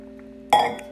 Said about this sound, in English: Sorry, drinking water.